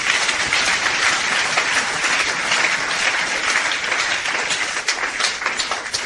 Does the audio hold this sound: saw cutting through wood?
no